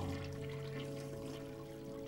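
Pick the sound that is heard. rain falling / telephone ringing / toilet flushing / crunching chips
toilet flushing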